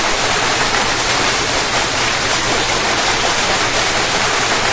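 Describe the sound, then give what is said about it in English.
Steady, dense applause from a crowd on the Am I Worth the Time show, a continuous wash of many hands clapping at a loud, even level throughout, with no voices coming through. “Come on and clap it up boys, right there.”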